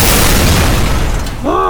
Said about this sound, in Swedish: Rejäl explosion kommer från reaktorrummet och den är betydligt mer kraftfull än vad ni hade planterat där.